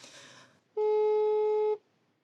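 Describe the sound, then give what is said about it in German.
A single steady telephone ringing tone while phoning someone who holds telephone consultation hours, one loud buzzy beep lasting about a second, preceded by faint line hiss and followed by silence. “Ähm, und zwar, diese könnte ich jetzt gleich anrufen.”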